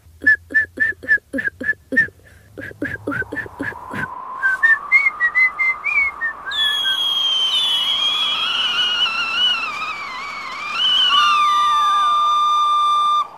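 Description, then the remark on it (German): A person whistles through pursed lips, blowing the air out, first in a quick series of short, breathy notes, then in longer wavering tones that slide up and down, fairly loud. “Probier doch einfach mal zu pfeifen.”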